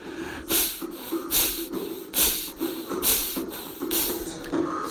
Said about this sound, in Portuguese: Começamos juntos a respirar, inspirando e exalando, exalando, inspirando por o nariz, forte, intenso, na postura adequada, a consciência desperta, a respiração intensa pelo nariz, forte